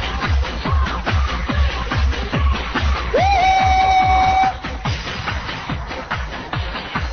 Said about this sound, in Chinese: 你们热情的掌声